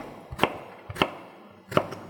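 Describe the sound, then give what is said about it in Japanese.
A knife dices an eggplant into cubes on a cutting board in three sharp, separate knocks at an uneven pace, each with a dull thud and a crisp click. No one speaks. “で、それで、さらに2分割したやつを、縦に3分割。横からサイコロ状に切る。”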